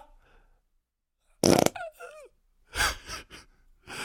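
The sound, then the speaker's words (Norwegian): A loud, sudden fart blast bursts out, followed by short squeaky trailing bits, then a few breathy, gasping vocal sounds. “Akkurat når jeg skal si mine synder til offentligheten, så blir det bare avbrutt av og promp.”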